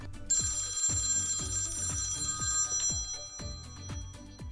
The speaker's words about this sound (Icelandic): settið þú ekki símaðan og silent? Já, býtu, fyrir ekki Þetta er minn sími, hver er að ringja?